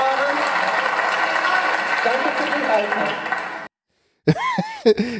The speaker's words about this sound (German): ja, den Beifall kann man doppelt interpretieren, ne?